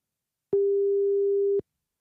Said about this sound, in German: Wir gucken einfach mal. Oh, es klingelt, Leute.